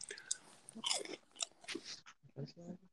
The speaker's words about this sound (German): Ich habe auch gerade hier, ich weiß ja, tut mir leid an die Zuhörer jetzt gerade, aber ich muss gerade eine Tüte ähm, Schokokrossis essen.